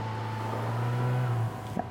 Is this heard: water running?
no